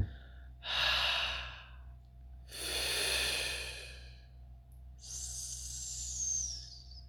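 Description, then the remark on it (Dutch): A slow exhalation in a breathing exercise, shaped into three breathy sounds in a row: a soft H, then a fricative F, ending in a long, sharp S hiss, with short pauses between. “En dan start je met de H. En dan ga je door met een F. En dan eindig je met een S.”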